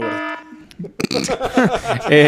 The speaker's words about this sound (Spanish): Si, si de repente decimos un spoiler, yo voy a editar esto y voy a poner una alarma que va a sonar así.